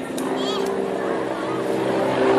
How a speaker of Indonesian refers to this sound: oh itu helikopter anak menjemput saya hari ini saya harus naik helikopter